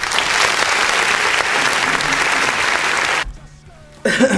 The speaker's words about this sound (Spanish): Aplausos, por favor.